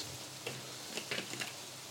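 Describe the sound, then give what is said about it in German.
Untoasted sesame seeds, sprinkled over a dish, toast in a frying pan with a soft, steady sizzling hiss, broken by a few quick crackles and pops. It's fairly quiet, with no one talking. “Der ist noch nicht geröstet, aber dadurch, dass wir ihn jetzt noch ein bisschen in der Pfanne lassen, wird er noch ein bisschen mitgeröstet.”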